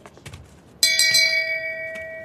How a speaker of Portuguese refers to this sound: Como é que é o barulho? Gling gling gling, Shame. Gling gling gling, É meu sino se faz Gling gling gling.